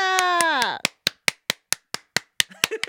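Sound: applause clapping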